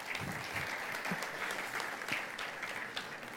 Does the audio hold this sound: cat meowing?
no